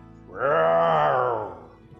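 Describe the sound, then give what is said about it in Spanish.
A single drawn-out roar, voiced by a person imitating a tiger: a strong, groaning tone swells quickly, holds for about a second, then sags and fades out. “Suceden cosas extrañas, dijo Chingolo dando su primer rugido.”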